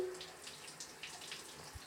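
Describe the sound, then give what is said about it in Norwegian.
Steady rush of running water with a broad hiss from a tiny shower, continuous and fairly quiet, with faint splashes and no talking. “denne bitte lille dusjen her i NRK”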